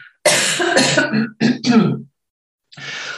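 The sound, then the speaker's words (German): A loud bout of coughing and throat clearing: several harsh bursts in quick succession, a short pause, then one more rough clearing of the throat. “Und äh, Achtung, Husten.”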